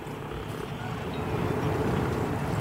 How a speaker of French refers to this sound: l'autre son, c'est des pingouins